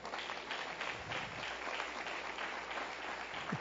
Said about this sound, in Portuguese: Aplaude a Deus por isso.